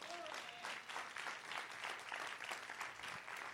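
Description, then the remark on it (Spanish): A church audience breaks into sustained applause for the Lord, a dense, steady patter of many hands clapping for several seconds, with a brief tonal whistle or cheer near the start. “¿Puede dar un aplauso al Señor?”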